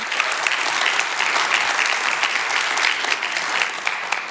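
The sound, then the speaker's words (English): A church crowd at Revive applauds its worship team and announcements people, a dense wash of many hands clapping at a constant, fairly loud level throughout with no pauses and no voices on top. “Can we praise God for our worship team and for our announcements people?”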